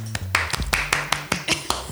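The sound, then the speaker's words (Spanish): Hands clapping at a quick, steady pace, about ten sharp claps in under two seconds, with a low hum underneath and no talking. “Todavía no tenemos presupuesto para meter. aplausos. Entonces tenemos que aplaudir.”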